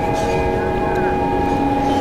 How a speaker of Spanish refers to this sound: Esta alarma activa esos recuerdos.